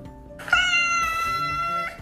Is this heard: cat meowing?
yes